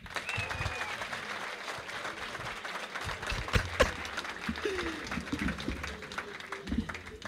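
An audience applauds steadily for several seconds, a dense wash of many hands clapping, with a few voices and cheers rising through it and a couple of louder claps standing out.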